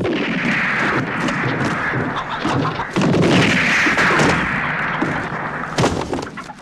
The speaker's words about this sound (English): Instead of music, a pair of gunshots ring out.